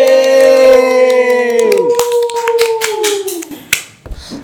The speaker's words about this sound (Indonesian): tepuk tangan dulu ya tepuk tangan deh